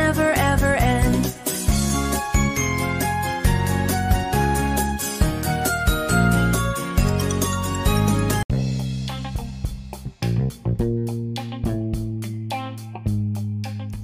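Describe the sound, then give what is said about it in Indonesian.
The Firefly Funhouse theme song, the gimmick of wrestler Bray Wyatt, plays with no voices: layered tonal melody over a steady low bass line, then, after a brief dip, it shifts to sparser notes punctuated by sharp, rhythmic percussive ticks. “udah dengarkan musik yang tadi? Ya, itu adalah tim song dari Firefly Funhouse, gimmick baru dari Bray Wyatt”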